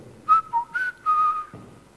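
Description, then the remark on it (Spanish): A person whistles a short, clear melodic phrase in imitation of a blackbird's song, a few fluting notes with small pitch slides, fairly loud with no talking. “Era el mirlo, yo no lo sabía, porque el mirlo es el primer pájaro que canta antes de que amanezca.”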